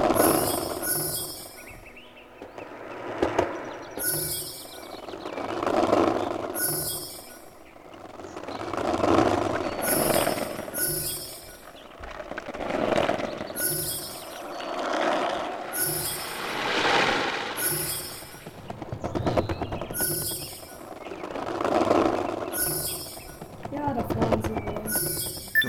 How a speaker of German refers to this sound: So, jetzt fahren hier die Skateboards an uns vorbei.